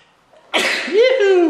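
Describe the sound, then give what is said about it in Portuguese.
A single loud sneeze: a sudden breathy burst followed by a drawn-out voiced tail, with no talking around it. “Quem mais espirrou aí que lembrou da caixa do Banco do Brasil?”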